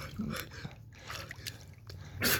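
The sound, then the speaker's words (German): Water drips and trickles in short, irregular splashes, with a soft continuous wash of liquid underneath and a louder splash near the end. A person is wading into cold water until fully submerged. “Uh, und jetzt alles unter Wasser.”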